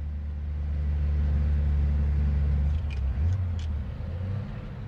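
A pickup truck rolls along a road, its low engine rumble steady, with a brief shift in pitch near the end as it changes speed; a few faint clicks sound in the background.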